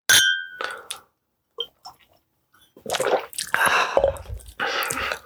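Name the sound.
glasses clinking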